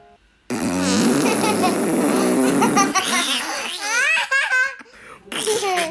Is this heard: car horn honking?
no